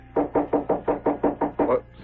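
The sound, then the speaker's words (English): A steady series of about eight firm knocks on a door, evenly spaced and fairly loud, with no voices. “Stop your knocking and come in.”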